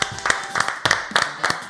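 A small group claps to welcome a new guest on the show Sombrero, in a brisk, uneven burst of applause, sharp hand claps overlapping at a steady lively pace for a couple of seconds, with no voices over it.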